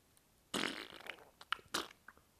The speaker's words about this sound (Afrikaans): Mamma, ek het gepoefie.